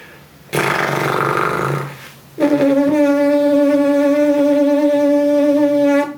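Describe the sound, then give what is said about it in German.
Lips buzzing with no mouthpiece, first vibrating loosely in a rough, noisy flutter for about a second and a half, then after a brief pause, with the lips tensed more strongly, a steady, loud, pitched buzz that holds one low tone. “Das funktioniert ja ohne Mundstück. Und es gibt dann ein Summgeräusch.”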